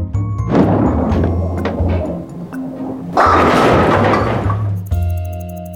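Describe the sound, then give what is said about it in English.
A heavy bowling ball rumbles down a lane for a few seconds, then slams into the bowling pins with a loud clattering crash that scatters and fades, followed by a brief mechanical hum. “In bowling, you roll a heavy ball toward bowling pins.”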